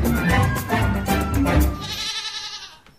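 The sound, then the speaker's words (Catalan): A goat bleats loudly, one long wavering, quivering call that breaks into a thinner, higher tail before fading out, with no voices around it. “fins que ell confessa que s'ha enamorat hm, d'una cabra.”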